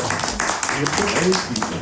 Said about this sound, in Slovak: Takže ešte raz poprosím. Malý potlesk.